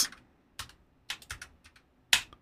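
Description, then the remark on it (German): Sharp, bright clicks of keys being struck on a mechanical keyboard, about eight irregular keystrokes in quick bursts, fairly loud with no one talking. “spielt dir Eve, dieser deine mich Deine Eve, mechanische hä? Tastatur spielt dir da überhaupt was? nicht rein.”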